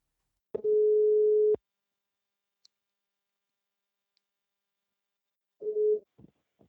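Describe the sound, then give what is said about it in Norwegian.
A telephone ringback tone heard while a call is placed: one steady one-second beep, a long silent pause, then the next beep begins before cutting off, with a few faint clicks. “Betyr det at du skal gå og ringe ham nå, da?”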